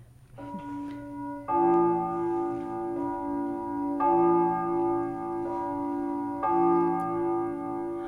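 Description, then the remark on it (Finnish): A clock chimes three times at three o'clock, each rich, resonant strike ringing out and overlapping the lingering hum of the one before, spaced a couple of seconds apart. “Kolme. Kello on jo kolme. Niin, kolme. Sinä on kaunis ääni teidän kellossanne.”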